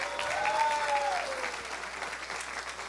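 A crowd claps steadily throughout, dense and sustained applause filling the room at a fairly even level, with a brief tonal whistle-like sound rising and fading early on.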